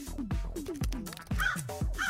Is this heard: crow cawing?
yes